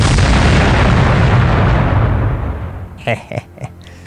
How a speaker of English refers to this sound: A giant explosion destroys the far end of the hallway.